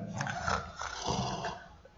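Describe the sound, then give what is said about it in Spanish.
A voice imitates snoring: two or three rough, rattling snorts in a steady rhythm, fairly loud and gravelly, with no other talking. “Es muy parecido a roncar.”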